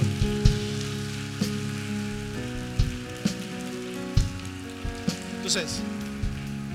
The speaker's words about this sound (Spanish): Dele un aplauso a Dios.